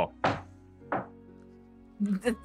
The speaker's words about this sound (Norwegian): Banker du på en butikkdør? Jeg gjør det.